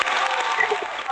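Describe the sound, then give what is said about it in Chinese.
A steady burst of audience applause welcoming an erhu player about to play a melodious piece, dense overlapping hand claps forming a continuous bright crackle at even loudness throughout the short moment. “来吧，掌声欢迎，拉个悦耳的来给我听听。”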